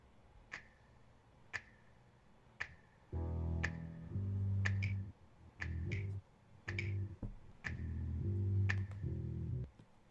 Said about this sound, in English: Let's let, us let us hear the music for what it is.